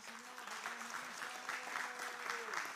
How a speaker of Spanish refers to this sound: A usted debería darle un aplauso al Señor, hermano.